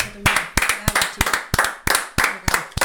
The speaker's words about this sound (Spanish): Un aplauso. Un aplauso.